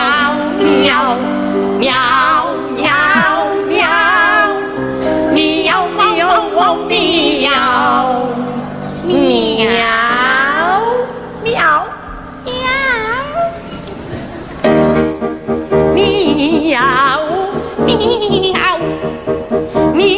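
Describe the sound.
Two operatic sopranos, Montserrat Caballé and Velasco, sing a comic duet made entirely of cat-like meows on a 1990 Televisión Española show, their voices sliding, trilling and trading phrases with strong vibrato over steady accompaniment, loud throughout.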